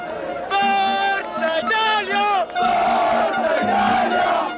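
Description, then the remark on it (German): A dense crowd of football fans in Rome roars and chants, celebrating Italy's win over England in the European Championship final, loud, with sustained, rising shouts and whistles blending into a continuous jubilant din. “In Rom, da klang es dementsprechend auch ganz anders.”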